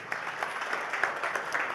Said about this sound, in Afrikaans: Gee vir die orkes 'n lekker hande klap toe.